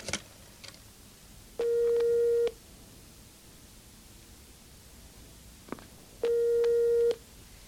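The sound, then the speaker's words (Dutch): Two long tones of a telephone ringback during a call to directory enquiries, each about a second, steady and fairly loud with a buzzy harmonic edge, separated by a pause of quiet hiss with faint clicks. “Bel inlichtingen en vraag het nummer van Probst via Calietta en Turijn.”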